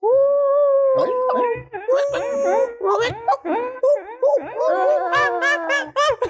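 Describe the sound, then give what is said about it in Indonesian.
Several people mimic dogs with their voices as a mock moment of silence, drawn-out howls and wails mixed with choppy yelping barks, loud, overlapping in a chaotic chorus for several seconds. “mari kita mengheningkan cipta, dengan cara menggonggong ya.”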